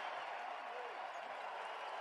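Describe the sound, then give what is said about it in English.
A big basketball arena crowd at a Jazz–Celtics game, on their feet during an 18 to 2 run, roars and applauds in a steady, dense wall of cheering that holds at full volume for the whole stretch, with no single voice standing out. “Crowd on their feet.”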